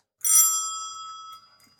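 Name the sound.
doorbell ringing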